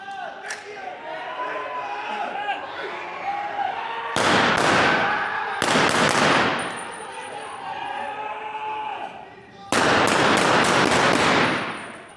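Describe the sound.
Loud bursts of automatic gunfire, three rapid volleys of sharp cracks, during a police training exercise in which attackers fire automatic weapons at victims played by extras, over a background of shouting and commotion, with voices calling out between the bursts.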